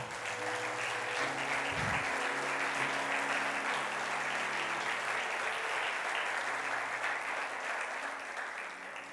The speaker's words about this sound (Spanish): Si usted lo cree, dele un aplauso al Señor.